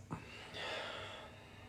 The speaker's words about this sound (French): Respiration.